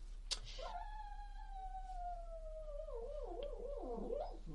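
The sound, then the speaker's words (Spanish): A dog lets out a long, drawn-out whining howl, holding one tone for several seconds before it sags and wavers unsteadily, with a brief click just before it begins. “Uy, tenemos un perro durmiendo aquí.”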